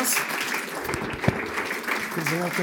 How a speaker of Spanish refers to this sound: Así que les voy a pedir que me ayuden a recibir con un fuerte aplauso